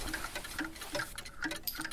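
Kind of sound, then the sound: household object, pocket watch ticking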